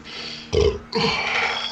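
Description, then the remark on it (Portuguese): A loud sneeze: a short sharp burst followed by a longer, noisy rasping blast, standing out over a low background hum with no talking. “Saúde, saúde, porra. Obrigado, obrigado.”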